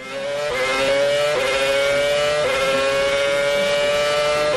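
A Formula 1 racing car engine at the Valencia grand prix, held from 2008 to 2012, roars at a high, screaming pitch, climbing steadily through gear after gear with brief dips at each shift, loud and continuous with no voices.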